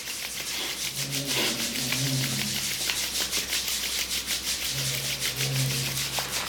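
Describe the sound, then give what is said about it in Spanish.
Palms of the hands rub vigorously together in rapid, steady back-and-forth strokes during a guided exercise, a continuous dry swishing that keeps an even loudness throughout, with a faint low humming tone underneath. “Y vuelves a parar al centro y comienzas a frotar vigorosamente las palmas de tus manos y las plantas de tus pies también de manera vigorosa.”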